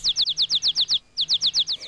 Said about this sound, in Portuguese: Ouça os pássaros.